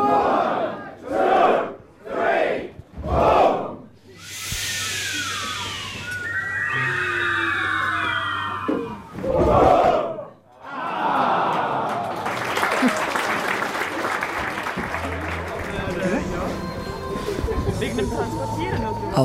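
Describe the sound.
At an award ceremony, a crowd performs the so-called 'fireworks': everyone rises from their seats and stamps their feet in a run of short, heavy bursts, throwing their arms up and slowly lowering them while letting out a long, loud, breathy hiss that swells and holds, with raised voices mixed in.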